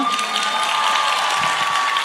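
Steady audience applause fills the whole two seconds, a dense, even wash of clapping with some cheering from the crowd, loud and continuous with no individual claps standing out.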